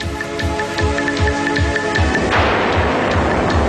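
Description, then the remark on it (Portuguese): A droning airplane engine pulses steadily under a string of repeated electronic beeps as the plane is locked in a targeting sight, then it explodes in a sudden loud blast that roars on to the end, with no voices; the opening sound of an advertisement. “O primeiro som que vão ouvir neste anúncio é o de um avião que é posto numa mira e explode, o que é logo uma coisa gira para começar um spot publicitário.”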